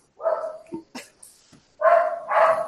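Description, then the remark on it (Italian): A dog barks several times: one bark, a pause with a few small clicks and noises, then two more loud barks in quick succession. No one speaks. “No, c'è un cane”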